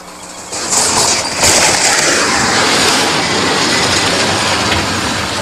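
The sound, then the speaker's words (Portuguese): A heavy truck roars past on the BR-282 highway where speed reducers were installed, a loud, steady rumble with a broad rushing noise that swells after the first half-second and holds throughout, with no voices. “Segundo Dona Lourdes, cada vez que um caminhão pesado passa por aqui, a casa lá em cima treme.”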